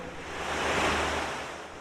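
A single ocean wave swells and washes onto a beach, a broad rushing hiss that builds to a peak midway and then recedes, with no voices.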